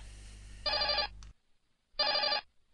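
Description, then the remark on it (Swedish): A telephone rings twice, each ring a bright, trilling electronic burst about half a second long, loud, separated by a short silence with no voices present. “Nåväl, ring ring.”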